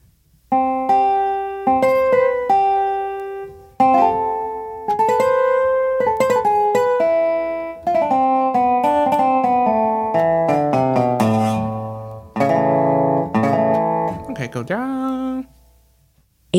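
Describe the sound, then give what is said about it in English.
A dobro slide guitar virtual instrument plays a slow melodic phrase, notes gliding and sustaining with resonant, twangy metallic tone, fairly loud with brief pauses between runs and no talking. “Dobro slide.”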